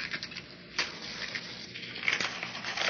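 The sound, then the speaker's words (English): A paper bearing a written curse burning after a match is struck, with a dense, irregular crackle and rustle that holds steady for the whole stretch, punctuated by sharper snaps. No one speaks. “There goes the anathema up in smoke.”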